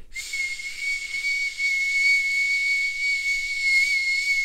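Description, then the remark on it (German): A voice imitates a whistling engine noise: one steady, shrill whistle over a breathy hiss, held unbroken for about four seconds, close and fairly loud, with no talking. “Ist das das Geräusch eines Keilriemens?”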